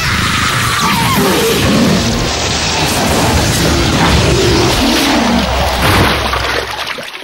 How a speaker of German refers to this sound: Hä? Was, was war das? Die verdammte Bestie ist explodiert.